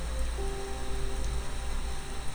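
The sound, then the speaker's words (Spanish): Steady rain patters onto a balcony, a dense, even hiss of drops with no pauses, moderately loud, with a faint low hum underneath. “Serán las gotas blancas cayendo en el balcón”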